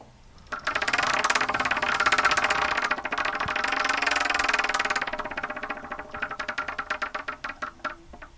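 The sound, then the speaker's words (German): A prize wheel called the Wheel of Torture spins with a fast, dense rattle of clicks that gradually slows into separate ticks spaced farther and farther apart before stopping. No one speaks. “Ich drücke das Wheel of Torture und guck mal, ob es jetzt S oder B wird.”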